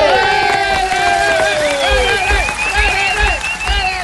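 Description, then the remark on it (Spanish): An audience applauds the performers introduced on a show, clapping steadily throughout, with whoops and cheering voices rising over the clapping and a few low thumps underneath, all at a loud, even level. “El aplauso grande para ellos.”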